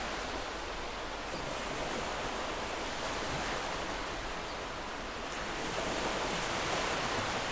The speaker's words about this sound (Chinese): 你听见海浪的声音，就像是平静又优美的旋律。